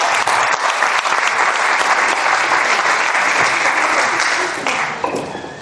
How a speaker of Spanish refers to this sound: Bueno, pues si os parece bien, yo creo que merece ahora sí un aplauso rotundo